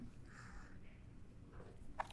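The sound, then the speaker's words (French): A small, quiet sip from a drink: a soft wet slurp followed by a faint swallow and a brief mouth click near the end, with no talking. “Je prends une petite gorgée, puis.”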